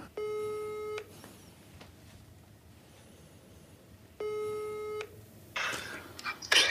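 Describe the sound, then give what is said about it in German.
A phone ringback tone, heard while placing a call to Olli Schulz, sounds twice, each a steady electronic purr lasting about a second with a pause between, followed by a brief burst of rustling or line noise as the call connects. “Ja, warte, ich rufe den an.”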